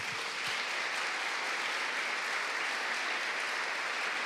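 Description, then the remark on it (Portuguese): A church audience claps steadily to honor a married couple from Uberlândia, Minas Gerais, who are standing; a dense, even wash of many hands that holds at a constant level without pause, with no voices rising above it. “Você pode dar uma salva de palmas para eles?”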